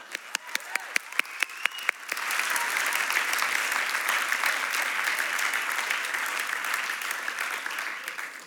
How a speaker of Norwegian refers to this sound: En applaus for disse.